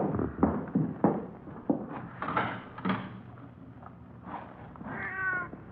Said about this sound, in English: Oh, might be it's just a cat out in the street, you know, on in the side alley, maybe, huh? Mm-hmm. Probably not even in the house.